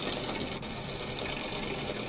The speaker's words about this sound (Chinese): 所以这个就是我们在水里面哈、常听到的螺旋桨的声音。 嗯， OK，那螺螺旋桨它其基本上就是这种啵啵啵啵啵啵这种这种螺旋桨在打的声音，这个东西是我们耳朵听的那个音频率可以听得到的的范围。